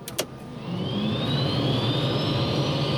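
A couple of sharp clicks, then a helicopter's engines, switched on by the pilot, spin up into a steady low roar with a rising turbine whine climbing above it, continuous.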